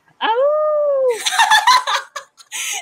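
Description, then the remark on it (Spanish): A single loud human howl imitating a wolf, a sustained tone lasting about a second, followed immediately by bursts of laughter. “Me estuvo, me aullando como por una semana.”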